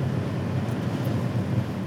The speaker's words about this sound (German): Ja, äh, man hört es vielleicht, wir haben uns ausreichend lange über das warme Wetter beschwert. Es ist windig. Aktuell nicht regnerisch, aber windig und deutlich kühler.